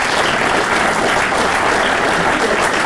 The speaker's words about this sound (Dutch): Wel een applaus